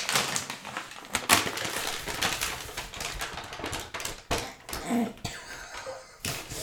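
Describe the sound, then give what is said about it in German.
A brown paper bag rustles and crinkles as it's opened, a steady run of crisp crackles and sharp crumpling bursts lasting several seconds, with no talking. “vielleicht, vielleicht nimmst du die Tüte mal und guckst mal, was Moment, da drin ist.”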